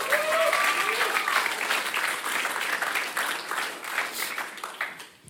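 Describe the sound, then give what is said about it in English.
A church audience cheers for God during a service, bursting into loud, sustained applause mixed with cheers and whoops, the dense clapping holding steady before thinning out and fading near the end. “So, can we give God a cheer?”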